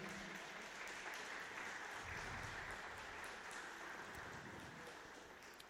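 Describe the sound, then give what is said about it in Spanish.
An audience claps hands for God in a dense, sustained burst of applause, steady and loud throughout, easing off slightly toward the end with no talking over it. “¿Le puede dar palmas a Dios fuertemente?”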